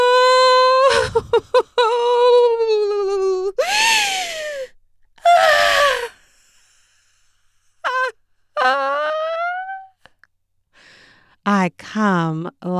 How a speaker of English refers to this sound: like a fucking jet engine speeding through the sky, just hard and fast and sure, slicing the air with my moans.